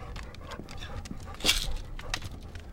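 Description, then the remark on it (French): A dog pants in quick breathy bursts, with a brief, louder whimpering whine near the middle before the panting carries on. “J'ai monsieur avec moi. Hein Viens mon chien.”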